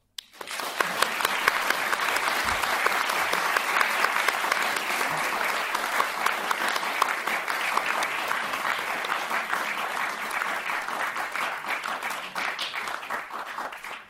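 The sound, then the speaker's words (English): Sustained applause from the audience of a panel discussion at the Lakes International Comic Art Festival in the Lake District, thanking four comic creators: a dense, even patter of many hands clapping at a steady loudness for about fourteen seconds, with no talking over it. “Big round of applause.”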